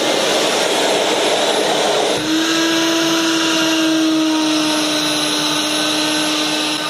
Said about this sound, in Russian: Итак, все готово к работе. И сейчас установим робот на окно и посмотрим, как он выполняет уборку. Вот робот включился.